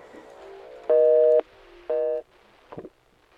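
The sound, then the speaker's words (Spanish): A telephone busy tone after a listener's call to a radio show is cut off sounds twice, two steady mid-pitched beeps about half a second long with a short gap between, over a low murmur, then a brief faint rattle. “Parece que se nos cortó.”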